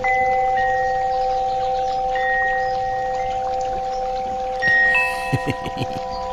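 Wind chimes jingle in a brief cluster of bright, ringing strikes near the end, over a steady humming drone and the soft, trickling sound of a babbling brook.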